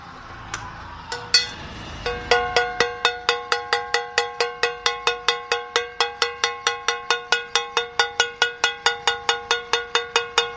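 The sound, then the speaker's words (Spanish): Metal pots being banged in protest in Bogotá, struck in a steady, rapid rhythm, a bright clanging beat repeating about four times a second after a few scattered opening hits, loud with no voices. “Suenan las cacerolas en Bogotá, suenan en el sur, en el centro, suenan hasta en el norte.”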